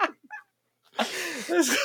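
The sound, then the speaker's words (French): A human voice imitates a clucking hen, a reference to the hen in Camelot: a brief squawk, a short pause, then about a second of fairly loud warbling clucks and cackles. “ah non, c'est une poulette.”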